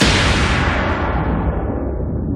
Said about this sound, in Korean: 자 지금 이게 천둥 소리거든요 이게. 이거는 이게, 그냥 뭐, 뭐, 서류 파일 같은 거 책상에다가 팡 치는 소리인데. 뭐 그럴 수도 있고요.